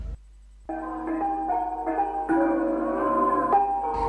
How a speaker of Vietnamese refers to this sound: Trong cái tiết trời xuân ấm áp được đón xuân với bản mường và được nghe tiếng cổng chiêng bồng beng mang cái hồn linh thiêng của rừng núi là âm thanh kết nối con người với thế giới siêu nhiên mang may mắn đầu năm đến tận cửa mỗi gia đình.